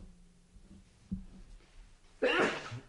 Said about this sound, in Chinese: 哎呀，我的娘嘞！对不起，啊，这个打喷嚏啊，这个敏感。